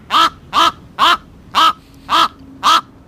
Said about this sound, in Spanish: Va a ser un cuervo, ¿no? Así es, efectivamente, es un cuervo. Este ¿Verdad? Nadie ha dudado, no tiene. Bueno, alguno puede decir que puede ser una grajilla, una corneja, pero no, es mucho más potente, mucho más.